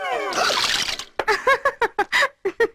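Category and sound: household object, water being poured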